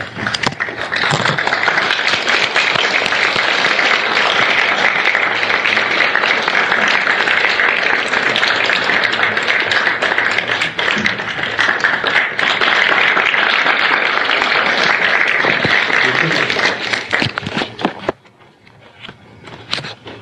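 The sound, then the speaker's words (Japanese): A large audience applauds steadily to welcome a lecturer, a dense wash of many hands clapping for about eighteen seconds before it quickly dies away into near quiet. “皆さん、拍手を持っお迎えいただきたいと思います。”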